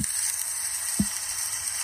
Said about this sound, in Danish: Skal lige prøve at se det, hvor han steger bøffer. Øh, det kommer her. Lille, lille, fin stegepande. Her kan man høre. Og her stak han bøffer.